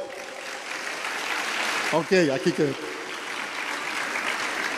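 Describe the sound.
Steady applause from an audience fills the whole stretch, a dense crackling wash of clapping, with a man briefly speaking over it partway through.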